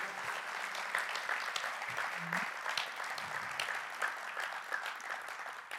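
An audience applauds to honour their pastors, many hands clapping in a dense, continuous patter that holds at an even, fairly loud level for several seconds, with faint voices murmuring beneath.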